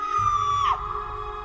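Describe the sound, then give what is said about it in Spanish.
A woman's high-pitched scream holds steady for over half a second, then bends downward and breaks off, loud over a low background rumble. “El grito”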